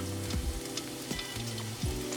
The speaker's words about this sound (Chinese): 我们来丢一小块的蒜头，如果它已经旁边有点冒泡了，就代表可以了。好，那我们现在呢就把蒜头给丢进去。好，那蒜头呢，我们要炒成蒜片